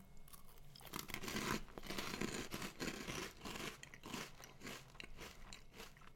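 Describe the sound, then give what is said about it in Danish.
Loud, crackly crunching of crisp jalapeño-spiced nacho snacks being bitten and chewed, a dense run of sharp crunches and brittle snaps with a few brief pauses, no talking. “Men jeg tror altså, det er sådan noget jalapeno krydderi eller sådan noget. Nå. Men lad os prøve dem.”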